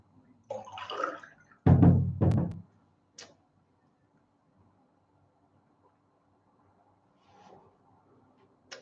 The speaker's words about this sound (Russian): Сейчас я воды попью, первый кулинар.